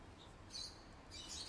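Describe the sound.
Two short bursts of faint, high-pitched squeaky chirping, like a parakeet, over a low hum, one in the middle and one at the end.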